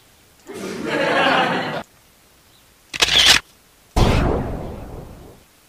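A synthetic gunshot effect in three bursts: a long hissing rush, a short sharp crack, then a loud blast that fades out slowly, each separated by silence and with no talking.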